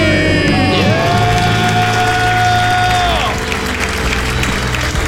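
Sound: celebratory screaming and cheering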